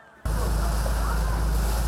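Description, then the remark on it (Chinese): After a brief quiet start, loud lake waves churned up by passing yachts burst in as a steady rushing roar of water with a heavy low rumble that continues unbroken. “一台搁算一台游艇，算在咧起行，这湖水应管讲超过一公尺，一时间哪像会来到大海。”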